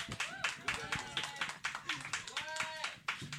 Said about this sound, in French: on applaudit, s'il vous plaît.